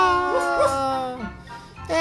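A dog, Señor Pantuflas, yelps and whines after being accidentally hit, a loud, high-pitched cry that slides up and down in pitch for about two seconds before a final sharp yelp.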